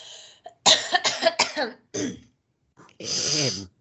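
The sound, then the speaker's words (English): A loud fit of coughing: a quick run of four harsh coughs, a short pause and a single cough, then one longer, raspy cough with throat clearing. No one speaks. “When I gotta cough.”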